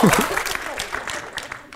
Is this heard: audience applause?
yes